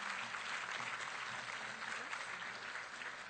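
Steady applause from a concert audience welcoming the Lobby Music Volunteers Chamber Orchestra, a dense, continuous patter of many hands clapping at an even level throughout, with no voices standing out.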